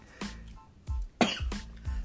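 A fairly loud fit of coughing: four or five harsh, chesty coughs in quick, uneven succession, with no talking in between.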